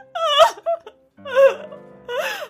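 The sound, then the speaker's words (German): A voice acts out a woman crying, with three drawn-out wailing sobs that rise and fall in pitch, separated by short gasping pauses, fairly loud. “Sie fing an zu weinen.”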